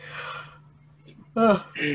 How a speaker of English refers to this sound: You're yawning just thinking about it. I am, and that was like natural. Stephen Colbert had to fake it. I just did it totally natural.